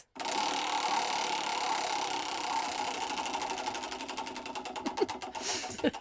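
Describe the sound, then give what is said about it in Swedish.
A spinning anecdote wheel on a Swedish talk show clicks rapidly against its pointer, the ticks gradually slowing and spreading apart as it winds down near the end. Fairly loud, with no talking. “Vi har ju hört frisyrfadäsen men du snurrar igen.”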